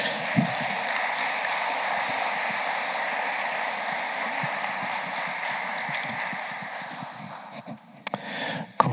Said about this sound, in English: So, can we give a round of applause uh, to the panel as they come up to share their story?